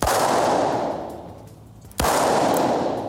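Two sharp blank pistol shots, aimed at the ground, about two seconds apart, each cracking loudly and then rolling away in a long, booming echo through a riding hall with police horses. No voices.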